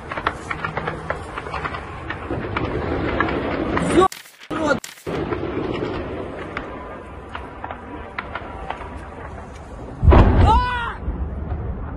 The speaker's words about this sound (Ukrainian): А хто стріляє? Це дрони стріляють.